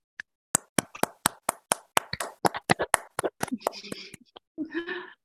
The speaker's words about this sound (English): Um, so we we typically do this at the end. Um, if everyone can un- quickly unmute themselves uh, and then applaud. Uh, three, two, one.